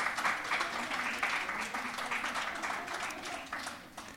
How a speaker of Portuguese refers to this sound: lá fora podem bater palmas.